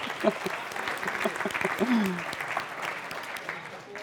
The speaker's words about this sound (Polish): A wy jesteście, super, nie? Gratuluję, brawa dla was.